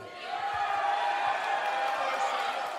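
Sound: arena crowd cheering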